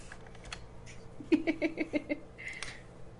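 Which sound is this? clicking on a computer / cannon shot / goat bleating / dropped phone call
clicking on a computer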